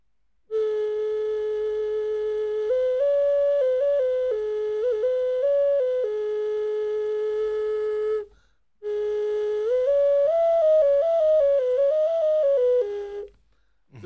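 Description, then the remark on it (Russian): A small ram-shaped toy whistle with four finger holes on its sides plays a sustained, breathy melody, stepping between a few pitches in two long phrases with a brief pause between, fairly loud. “вот здесь четыре дырочки, да? На боках, у На барана. Боках, да. Это своеобразный музыкальный инструмент.”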